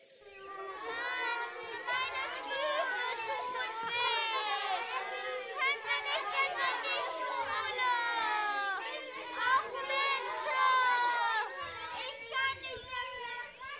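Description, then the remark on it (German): Several children whine and complain at once, their high, wavering voices overlapping continuously for the whole stretch, with no pause in the fretful chatter. “Oh, was haben wir denn hier für quengelnde Radiokletterfüchse?”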